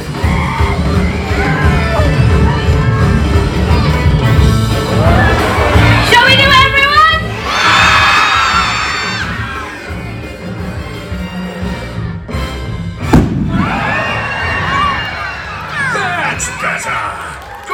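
A noisy crowd chatters and shouts, then a balloon filled with half hydrogen and half oxygen explodes with a single sharp, loud crack, followed by a burst of excited yells and cheering from the audience.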